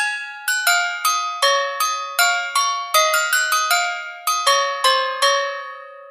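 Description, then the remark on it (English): Bright, ringing jingle bell tones chime out a quick festive jingle, about twenty struck notes in an uneven melodic rhythm, each note shimmering and overlapping the next, clear with no voices. “Like you can add a little audio file, jingle bells.”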